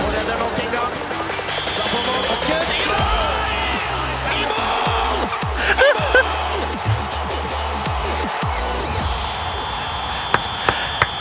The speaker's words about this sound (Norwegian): Og vi har ikke bare fått én ny jingle, vi har fått Umulig!